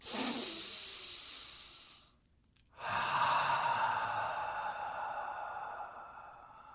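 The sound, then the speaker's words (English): Slow, deep breathing, in through the nose and out through the mouth: a long airy exhale, a brief quiet pause, then a long drawn-in breath that fades gradually. No talking. “Focus on the sound of your breath.”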